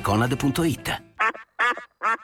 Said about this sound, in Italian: ti hanno regalato una zuccheriera sonora a forma di anatra.